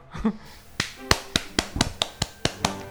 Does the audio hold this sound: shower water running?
no